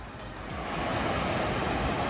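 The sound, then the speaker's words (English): Ocean waves wash onto a beach in a steady, continuous roar of surf that swells slightly louder partway through, with no voices. “But this is essentially where your bedroom level would be looking out to the ocean and falling asleep to the sound of the waves.”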